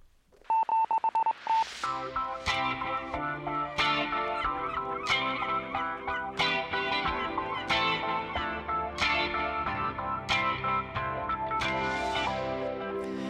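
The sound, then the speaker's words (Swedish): A sci-fi style electronic space alarm signalling that a new ocean has been found: a few quick beeps, then a bright, synthetic chiming tone that repeats in a steady pulsing pattern, loud and continuous with no voices. “Det här känns, eh, jag vet inte varför, men det känns som ett rymdlarm ska låta så.”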